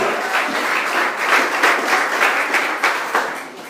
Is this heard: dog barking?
no